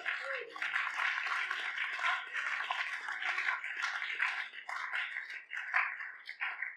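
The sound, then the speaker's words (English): A crowd at a church gathering claps their hands together in a steady, dense patter of overlapping claps that carries on throughout, with a faint murmur of voices mixed underneath. “some of you are still clapping.”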